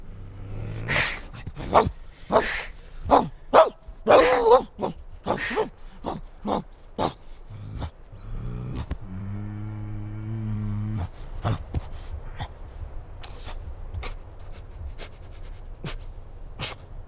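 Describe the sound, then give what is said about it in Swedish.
A rapid string of sharp dog barks and yelps for several seconds as the dog meets the cat for the first time in a film by Susanne Hedman and Martin Karlsson, then a sustained low growling tone, trailing off into sparse faint clicks and taps. “Och då kommer det att låta så här när Katten och hunden”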